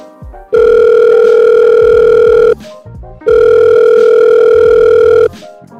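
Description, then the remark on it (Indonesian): A telephone line tone sounds twice as a phone call to a guest is connected, each a loud, steady electronic hum lasting about two seconds, separated by a brief pause, with no talking. “Uh, walaupun lagi self karantin, kita akan tetap bisa berbincang-bincang sama beliau melalui telepon. Nah daripada aku ngomong sendirian nih, langsung kita sambung aja yuk sama beliau.”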